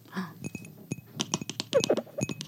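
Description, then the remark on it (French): Crisp ASMR tapping and clicking, a quick irregular run of light fingernail taps on a hard object, with a brief bit of voice murmuring near the start. “Je vais faire de la SMR. Top flop, top flop, top flop culture. Attends, ça, je suis sûre. Mais j'ai pas d'ongles.”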